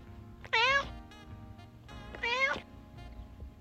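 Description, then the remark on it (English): A pet cat named Jackson meows twice, each call rising and wavering, fairly loud, with a pause of about a second and a half between them and quiet background hum. “Then I talked to sophomore Riley Ng about her pet cat.”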